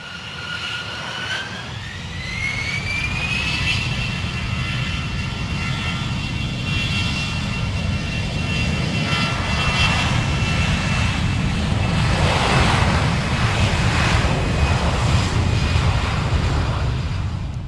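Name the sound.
jet airplane taking off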